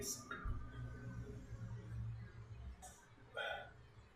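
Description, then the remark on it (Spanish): A long, deep burp after drinking a beer rumbles for about two seconds, followed by a couple of brief, higher-pitched vocal noises. “No hay como un delicioso eructo cuando te tomas una cerveza.”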